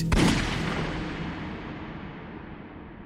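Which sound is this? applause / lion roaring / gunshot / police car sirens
gunshot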